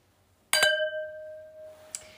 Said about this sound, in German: Yes, und wir stoßen mal wieder mit Wein an und zwar mit einem ganz besonders edlen Tropfen.